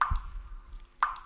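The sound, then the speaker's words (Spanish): Water drips from a leaking shower, two distinct plinking drops about a second apart, clear against a quiet background with a faint low rumble. “Una ducha perdiendo agua suena así.”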